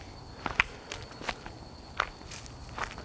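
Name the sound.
footsteps walking outdoors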